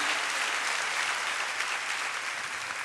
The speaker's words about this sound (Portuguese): Quem já está recebendo aí por fé, Dá um grito de júbilo aí, dá uma salva de palmas, dá um barulho aí para quem está em casa perceber que você está aqui.